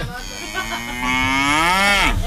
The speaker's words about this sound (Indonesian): rame suara rame ngapain ada sapi